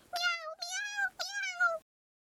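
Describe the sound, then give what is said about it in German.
A cat that has cut itself on the sharp edge of an open tin can while scavenging food lets out three or four sharp, high-pitched meows in quick succession, loud, each one sliding downward as it springs away startled, before the sound cuts off into silence. “Dabei schnitt sich die Katze an der scharfen Dosenkante und sprang erschrocken davon.”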